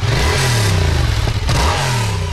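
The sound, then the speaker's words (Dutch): An engine, started to test whether it works, runs loudly and steadily, its low droning pitch rising and falling as it is given gas twice in quick succession, with no voices over it. “Probeer eens of hij het doet. Oh, nou. Kijk. nou, ja. Dat is een beetje gas.”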